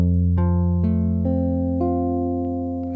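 A C7 chord, the dominant, resolving to an F major chord, played as steady, sustained electronic-keyboard tones with a few clean chord changes, loud, with no voices.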